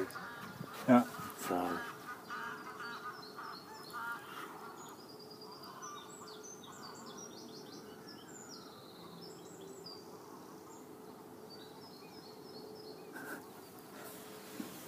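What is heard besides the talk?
geese honking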